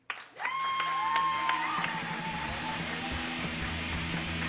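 A crowd bursts into sustained applause for a Chicago comedic artist, a dense steady patter of many hands clapping, with a brief high whoop riding over it early on before the clapping carries on evenly.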